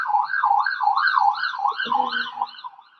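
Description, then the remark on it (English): A siren wails in a quick, steady up-and-down warble, fairly prominent and continuous throughout, with a brief low rumble partway through and no one talking. “my god, the goddamn sirens in the background.”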